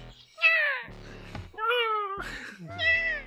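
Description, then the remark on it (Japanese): A cat meows three times in a row, loud, each call a drawn-out, slightly whiny cry with short noisy gaps between them. “厄介なタイプの猫がいるな。”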